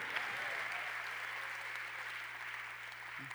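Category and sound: crowd, audience applauding in praise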